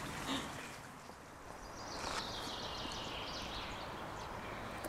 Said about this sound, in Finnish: Ihanasti täällä linnut livertää. Nyt me ollaan metsän reunassa ja tässä on itse asiassa aika tiheää metsää, tämmöistä vähän lehtomaista osittain.